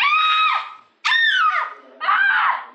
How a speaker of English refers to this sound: Oh, the three screams. This is my one of my favorite parts.